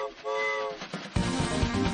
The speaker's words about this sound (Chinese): Look，带我们去马术秀的火车到了。